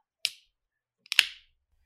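beer being opened

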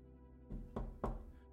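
knocking on a door

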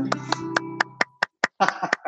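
hand clapping

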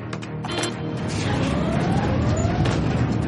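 alarm going off

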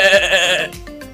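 goat or sheep bleating

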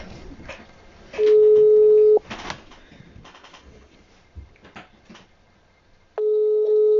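phone call ringing tone

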